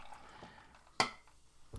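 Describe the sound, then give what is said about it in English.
Soft pouring of ginger ale, a faint fizzy trickle running throughout, broken by one sharp clink near the middle and another at the very end. No one speaks. “As I pour my”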